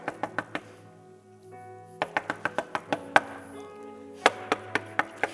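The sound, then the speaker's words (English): Sharp knocks rap out in quick bursts: a quick run of four, a pause, then a longer steady series, and another short volley at the end, like knocking on a door. “You're like, good gracious, who's at the door?”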